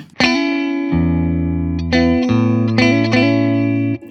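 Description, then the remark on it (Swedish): An electric guitar played through an effects pedal, with a thick, saturated tone. It plays a short phrase of five or six sustained notes with sharp attacks, loud and steady, with no talking over it. “Nu är den på, eller av.”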